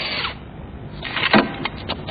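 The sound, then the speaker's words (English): A power drill whirs in short, gritty bursts, its buzzing rising and falling over about two seconds, with no voices. “You mean the drill?”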